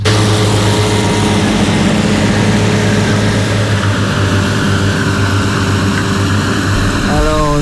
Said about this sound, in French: le tracteur va arriver. Par la droite.